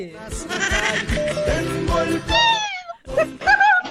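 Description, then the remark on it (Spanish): A person loudly imitates a cat, drawing out a long, wavering meow, then follows with two shorter, rising meows after a brief pause. “¡Miau! como por lo menos como gata pariendo pues hoy.”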